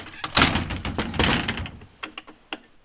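A door is opened and shut in a foley studio, with a long rattling, scraping movement followed by a few sharp latch clicks. No one speaks.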